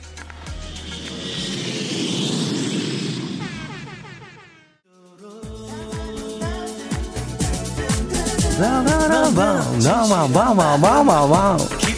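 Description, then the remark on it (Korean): A loud jet-engine roar swells up and fades away over a few seconds, like an airplane taking off, followed by upbeat music with voices. “자, 그럼 비행기 이륙합니다.”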